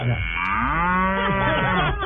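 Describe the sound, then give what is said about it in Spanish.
A single long, drawn-out cow moo, loud, its pitch rising and then sliding down over about two seconds, with no talking over it. “Y usted le agarra la estética a la vaca.”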